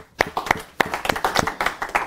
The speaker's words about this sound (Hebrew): הנה עוד יהודי יקר, מגיע לו מחיאות כפיים.